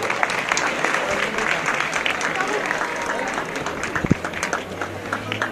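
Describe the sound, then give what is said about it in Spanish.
A large crowd in the Plaza of the Hermandad de las Cigarreras applauds unanimously as the brotherhood ends its penitential procession during the Santo Entierro Magno, a dense, continuous wash of clapping with no pauses, fairly loud throughout, with a brief low thump partway through. “Finaliza José Manuel la estación de penitencia con este aplauso unánime de la Plaza de la Hermandad de las Cigarreras en este santo entierro magno.”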